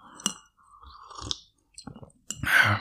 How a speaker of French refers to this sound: Peut-être que moi je t'énerve là en train de boire en, en buvant monter.